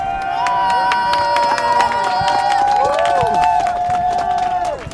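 A crowd at a protest claps and cheers steadily for several seconds, with dense overlapping applause under loud, sustained shouts and high whooping voices that rise and fall together.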